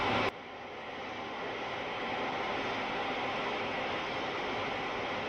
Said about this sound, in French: Dans cet extrait, le technicien décrit son travail d'étude de la répartition des intensités. On est à Vaison-la-Romaine. Avec un bruit blanc, les effets dus au maxima et au minima des ondes stationnaires d'une fréquence unique s'estompe